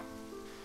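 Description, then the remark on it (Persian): A steady, dense hiss of falling rain, continuous and even for a brief moment, with a faint sustained tone humming beneath it. “فکر کنم یه بارونم بیاد قشنگ تر میشه پس بارونم شروع بشه”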